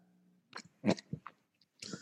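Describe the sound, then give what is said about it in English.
Someone chews a mouthful of egg, with a few soft, moist bites in an uneven rhythm separated by brief pauses. No one speaks. “Sorry, I was munching an egg.”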